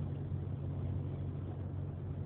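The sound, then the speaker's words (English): A steady low rumble and constant road noise inside a car being driven to a meeting, holding even and fairly loud throughout with no voices. “Uh, uh, right now, I'm, I'm in my, my, my car. I'm, I'm headed to, to a meeting.”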